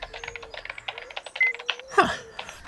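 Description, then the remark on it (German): Rapid, steady clicking of a quiet, simulated old-fashioned mechanical keyboard sound played from a device's small speaker as a man types a series of command lines, thin and tinny, over a faint steady hum, ending with a brief electronic sweep. “tippte er eine Reihe von Befehlszeilen ein, die von einem leisen simulierten Geräusch einer altmodischen mechanischen Tastatur aus einem kleinen Lautsprecher des Geräts begleitet wurde.”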